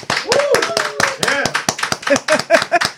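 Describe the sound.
A small studio audience claps in sharp, distinct bursts at a lively steady pace, with whooping and cheering voices rising over the claps, fairly loud.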